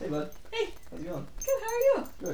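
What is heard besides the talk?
dog whimpering and yipping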